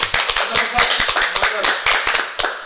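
A crowd applauds to welcome a person joining the show, hands clapping in a dense, steady patter of sharp overlapping claps that stays fairly loud and even for a few seconds, with a murmur of voices underneath.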